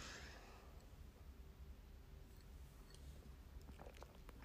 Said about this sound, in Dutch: Sorry hoor, even een slokje water.